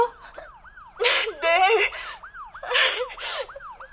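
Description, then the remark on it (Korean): A police car siren wails in a quick, repeating rise-and-fall pattern throughout, steady and moderately loud, while voices and breathy gasps break in over it; the police car is on its way and has just entered a park entrance. “아줌마가 지금 경찰차 이동 경로를 보고 있거든요.”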